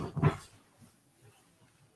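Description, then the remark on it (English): A dog lets out one loud, sharp bark near the start, then the rest is quiet except for a few faint, low whimpering sounds. “Apologize for that. Doggy doing too much.”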